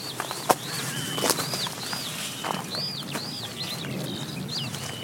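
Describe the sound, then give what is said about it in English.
A skylark sings overhead in a steady stream of high, looping whistled notes as people walk through a hidden gap in a hedge by a little gate, over a soft outdoor background with occasional rustling and thuds. “All the while, the skylark sings above us.”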